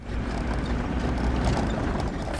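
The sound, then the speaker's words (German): A car rumbles along a bumpy dirt track in Nairobi National Park in the early morning, with a steady engine drone and low-end roar, broken by irregular knocks and rattles as it jolts over the rough, uneven surface. “Das Auto ruckelt über die holprigen Pisten.”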